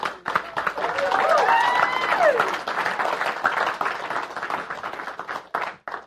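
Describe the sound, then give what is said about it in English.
A crowd bursts into loud, sustained applause with dense clapping and whooping cheers, welcoming guests introduced by the pastor, holding steady for several seconds before thinning out into scattered claps near the end. “to a really loud welcome, this is John Bandai”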